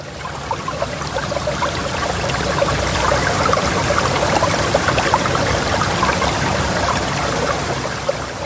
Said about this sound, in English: uh, and moss and the wind and water running over rocks should I cue that sound here, by the way?